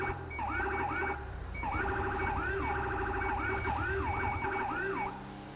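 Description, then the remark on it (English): A police car siren, switched on by the officer along with its lights, blares in a fast, repeating yelp, each rising-and-falling whoop cycling rapidly and loudly for several seconds over a low engine rumble. “Okay, since we have someone that's still outstanding, I'm gonna turn on some lights and sirens here.”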